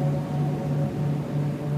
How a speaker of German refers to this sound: Sind es die Palmen, die sich sanft im sommerlichen Wind hin und her wiegen? Von weitem ist das Meer zu hören. Seine Wellen brechen seicht an den Felswänden, die hinaus ins Wasser ragen. Langsam laufen sie am weißen Sandstrand aus.